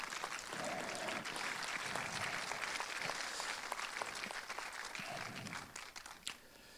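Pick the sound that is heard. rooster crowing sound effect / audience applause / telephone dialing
audience applause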